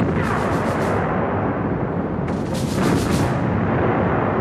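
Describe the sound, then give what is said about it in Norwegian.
Naval battle gunfire and explosions as the British battleship Duke of York sinks the German battleship Scharnhorst in a full storm: a loud, unbroken rumbling roar with two surges of crackling blasts, one at the start and another just past the middle, with no voices. “I full storm senker Duke of York Scharnhorst i et stort sjøslag.”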